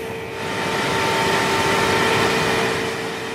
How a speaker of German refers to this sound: Nur kurz öffnet der Mitarbeiter die Tür zum Rechenzentrum. Dann macht er sie schnell wieder zu, denn der Lärm der Kühlaggregate ist ohrenbetäubend.